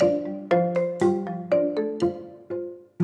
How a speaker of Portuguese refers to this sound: Não, tocou o telefone e mudou a minha vida.